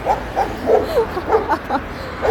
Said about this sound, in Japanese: ワンワンワンワンワンワンワンワンあれ本当に誰が通ってもね超える子なんだなめちゃくちゃ優秀ですよ番犬としてはただうるさすぎるなかわいい